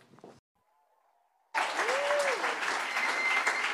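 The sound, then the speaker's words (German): After a brief quiet pause, an audience bursts into loud, sustained applause for the team that produced a video, filling the rest of the moment, with a faint whoop rising over the clapping. “Gebt den Leuten nochmal einen Applaus.”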